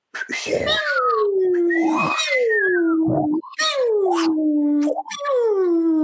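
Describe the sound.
Voices imitate R2-D2's concerned robot whistles, ocean waves and a laser blast all at once: repeated falling, warbling whistle swoops over breathy, hissing bursts, loud, continuous for several seconds.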